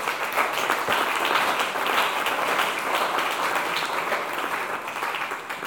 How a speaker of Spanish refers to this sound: Dele pues un aplauso al Señor por eso.